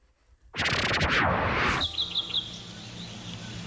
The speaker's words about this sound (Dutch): Hoewel de vogels al beginnen te fluiten is het om vijf uur ochtends nog donker in de jungle.